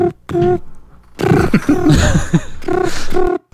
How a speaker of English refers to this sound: oh, I'm hearing the phone ring.